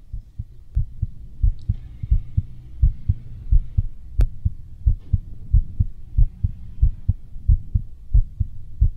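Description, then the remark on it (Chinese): A rapid heartbeat pounds on its own, deep muffled thumps coming in quick lub-dub pairs, beating wildly and getting faster and faster, insistent throughout with no voices. “心跳就像这样，扑通扑通，乱跳个不停，而且越跳越快。”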